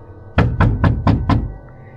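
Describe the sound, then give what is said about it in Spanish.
Five loud, heavy knocks on a front door land in quick, evenly spaced succession, forceful, with no voices and only quiet afterward. “Entonces escuché un golpe en la puerta principal.”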